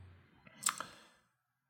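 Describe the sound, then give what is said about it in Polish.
A couple of quick mouse clicks, clicking the 'Share song' option in an iTunes/Apple Music menu, in fairly quiet surroundings with faint low background hum and no talking. “I teraz klikam udostępnij utwór”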